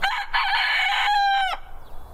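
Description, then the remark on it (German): A chicken pecking at a disused railway track in the Odenwald, Germany, gives one loud, drawn-out call lasting about a second and a half, followed by quiet background. No one speaks. “Es könnte sein, dass die Hühner am stillgelegten Gleis im Odenwald noch lange ungestört picken dürfen.”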